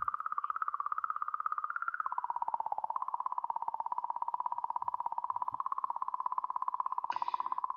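The comet 'song' recorded by the Rosetta probe at comet Churyumov-Gerasimenko: a steady, eerie electronic tone that wavers gently in pitch, with a fast fluttering, clicking texture running through it, heard alone without any talking.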